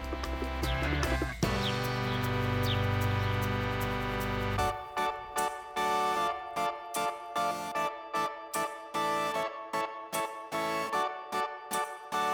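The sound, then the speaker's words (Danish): House sparrow calls: a steady run of short, bright chirps repeated in quick rhythm, fairly loud, following a few seconds of dense, sustained tonal sound. “I hørte gråsbog.”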